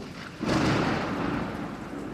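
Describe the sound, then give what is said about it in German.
A deep, rolling rumble of thunder swells in abruptly after a brief pause and keeps churning steadily, loud and broad like a storm overhead, from a storm raging for several days, with no voices. “Als schließlich über mehrere Tage ein Unwetter tobt, bibbert Tschaikowski vor Angst”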